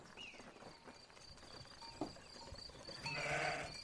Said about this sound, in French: Regardez là-bas, c'est le vieux berger avec ses moutons.